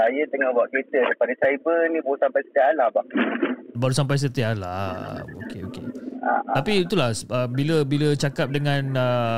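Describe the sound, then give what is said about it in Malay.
Speech over a phone line, with the caller's voice sounding hollow and faintly echoing, as if repeated back slightly delayed behind the conversation. “suara saya tu macam bergema dekat dekat dekat dekat background.”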